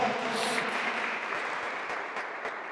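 An audience applauds loudly, a steady, dense wash of many hands clapping that holds at an even level throughout, with no single claps standing out.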